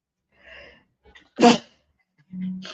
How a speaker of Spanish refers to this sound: sabía que iba a estornudar, perdón.